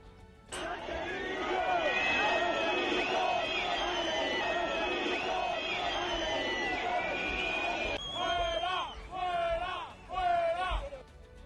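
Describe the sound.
A large crowd at a parade boos the president loudly and continuously, a dense roar of jeering voices that breaks into rhythmic, swelling bursts of booing near the end.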